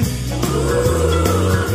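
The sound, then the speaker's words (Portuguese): Several voices give long, drawn-out mooing sounds imitating cows, loud, held over a steady musical accompaniment whose notes shift a few times. “Ele fez as vacas que.”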